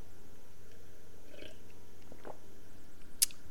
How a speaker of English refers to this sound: So I need to take another sip because we about to get deep into this next one.